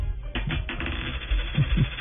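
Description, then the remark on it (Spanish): A short run of coins dropping and clinking, several quick metallic hits in a loose cluster, fairly loud, with no voices. “tenemos dos monedas más.”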